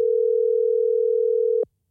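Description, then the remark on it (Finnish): A steady, loud telephone dial tone, after a phone call dropped during a live broadcast, holds one unbroken pitch for about a second and a half, then cuts off abruptly into silence. No voices are heard. “No nyt meni puhelinlinjat sekaisin.”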